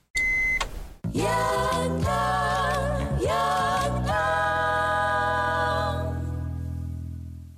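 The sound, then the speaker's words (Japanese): A short radio jingle for the Yantan Dengonban message segment: a quick electronic beep, then loud bright synth music with a few punchy chord changes, ending on a long sustained chord that slowly fades. No voices. “ラジオを通して伝えたい人に伝言を届けるヤンタン伝言版先ほどのジングはラジオルネーム恐縮なクイーンの伝言でございました”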